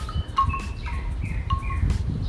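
birds chirping

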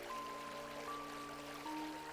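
babbling river stream

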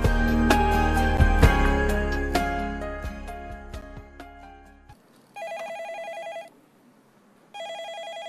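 telephone ringing repeatedly

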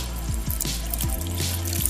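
water running

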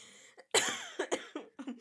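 coughing

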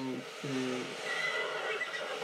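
horse neighing

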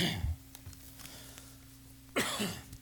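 coughing and throat clearing

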